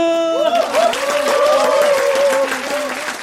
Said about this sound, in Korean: 박수는 계속 이어졌다.